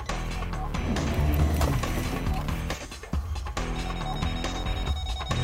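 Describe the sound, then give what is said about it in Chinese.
A D90 car's city collision-avoidance warning beeps rapidly and insistently during a collision test, a loud run of repeated electronic tones that keeps going for several seconds over a dense, busy background, with a brief dip midway, as the system brakes the car automatically. “它碰到这样的预警，自动刹车，就根本不用你去考虑离合和油门。”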